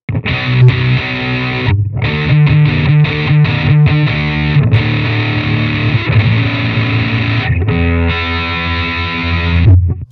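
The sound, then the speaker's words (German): Heavily distorted electric guitar played through a Painkiller distortion effects pedal, a chugging, loud riff with short palm-muted stops, the fuzzy saturated tone filling the whole clip with no talking over it. “Die haben echt keine coolen Zerrer Was macht der Painkiller?”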